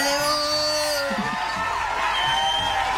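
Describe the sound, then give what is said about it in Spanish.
A crowd applauds a licenciada loudly and steadily after her talk, with cheering and a few high, drawn-out whoops rising over the clapping throughout the few seconds. “el aplauso porque siempre es un placer aprender desde el respeto desde la sabiduría, en la voz de nuestra licenciada, la señorita.”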